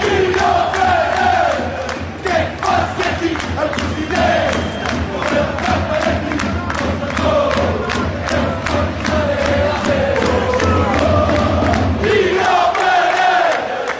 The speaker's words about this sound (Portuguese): O ambiente continua tenso na passada quinta-feira, no final do jogo do Sporting frente ao Rosenborg, a contar para a Liga Europa, um grupo muito grande de adeptos exibiu lenços brancos enquanto entoavam o cântico que agora vamos ouvir.